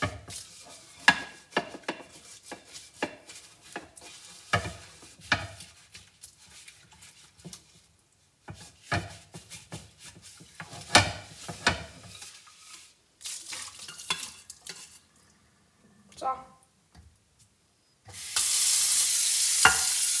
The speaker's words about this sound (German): Ich rippe die Pfanne ab. Jetzt muss erstmal Wasser rein